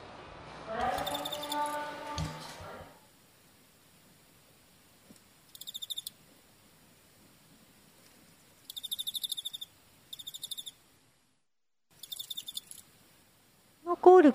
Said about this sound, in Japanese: 次はあの喧嘩をしている時のコオロギさんの声したいと思います。喧嘩喧嘩泣きですね。はい、喧嘩泣きです。